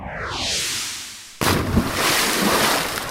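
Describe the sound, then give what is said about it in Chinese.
A falling whistle glides downward for over a second, then an object hits a lake with a loud, sudden splash, followed by steady churning, sloshing water until the end. “乖乖，这是东西掉进湖里的声音。”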